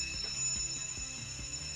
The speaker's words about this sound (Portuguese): A campainha é a nossa melhor amiga.